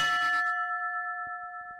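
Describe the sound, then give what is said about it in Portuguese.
A small hand bell in the pediatric ward of the IPO hospital in Porto, Portugal, is struck once to announce that a patient is ready to move on with life. Its bright metallic tone rings out steadily and slowly fades, with no voices present. “Na ala pediátrica do IPO do Porto há um sino que toca esperança.”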